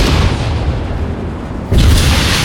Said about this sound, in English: The mighty 76mm gun roared once again, and the lead tank of the column exploded